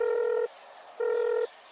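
A cellphone left in a living room rings twice in a steady electronic tone, each ring lasting about half a second with a short pause between, clear with no voices.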